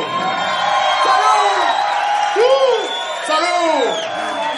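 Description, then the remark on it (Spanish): A dense live crowd at a rock concert roars and cheers, with several loud rising whoops and shouted calls cutting through the steady din of many voices. “Todos esos gritos, todos esos gritos pasarán a la historia.”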